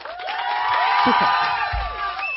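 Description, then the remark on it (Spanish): A large crowd cheers and shouts continuously, many voices rising and overlapping in a loud, sustained roar, with a slightly muffled quality throughout. “También, aplaudido, aplaudido por el pueblo.”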